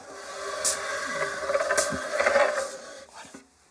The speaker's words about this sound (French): Je vais juste pousser la table derrière vous.